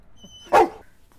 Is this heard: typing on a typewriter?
no